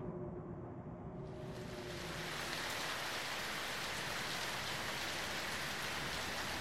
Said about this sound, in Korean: 대기는 차가웠고 비가 다시 내리기 시작했다.